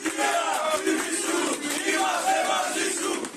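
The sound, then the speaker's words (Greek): Inside a courthouse, supporters of Ilias Kasidiaris shout slogans in his support together in loud, sustained unison, voices blending into a dense, rhythmic chant that holds steady for a few seconds without a break. “Μέσα στα δικαστήρια, ο παδί του Κασιδιάρη φωνάζουν συνθήματα στήριξή του με τον ίδιο να χαμογελά.”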